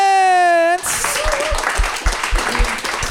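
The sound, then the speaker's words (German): A brief sustained musical tone cuts off into loud, dense audience applause at the end of a show, with many hands clapping at once and continuing steadily, and some voices mixed in under the clapping. The applause is for the Kulmens. “Vielen Dank und nochmal einen großen Applaus fürs Kulmens!”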